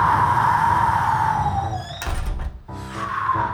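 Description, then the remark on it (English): A howling snowstorm wind whistles steadily in the North Woods, then a door is struggled shut with a heavy thud around the middle as snow blows in, followed by a softer knock before the wind rises again. “And the snow blew in as he struggled to shut the door behind him.”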